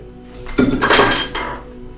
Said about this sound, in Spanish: Víctor Frank, tengo los libros aquí, sí, los voy a sacar, claro que sí. Escucharéis un ruido, pero bueno, es que